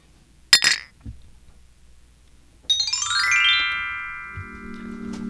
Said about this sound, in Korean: 짠할까요? 아, 짠.